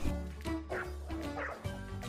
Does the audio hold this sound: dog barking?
yes